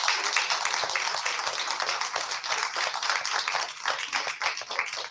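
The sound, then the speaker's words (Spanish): Steady applause from an audience greeting the mayor of the Concejo de Carreño, a dense patter of many hands clapping at an even loudness for several seconds without letting up. “Así que no vamos a quedar sin saludarte. Un aplauso.”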